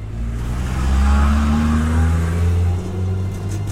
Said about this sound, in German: Die Reifen quietschen schon und das Fahrzeug fängt an sich zu bewegen und zwar in relativ kurzer Sukzession zu einer relativ hohen Geschwindigkeit.